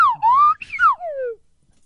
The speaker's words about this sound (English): Uh, I, I can play my whistle.